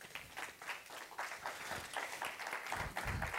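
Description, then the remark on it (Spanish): An audience applauds for Christ, many hands clapping steadily in a dense, continuous patter at even loudness for a few seconds, with a faint murmur of voices underneath. “Amén, denle un aplauso a Cristo.”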